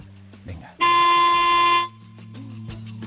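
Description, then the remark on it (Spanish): The horn of a small 2009 car gives one steady, loud blast of about a second, bright and buzzy, with quiet background chatter and voices before and after it. “Qué bien suena ese claxon para lo que yo creo de pequeñito que es.”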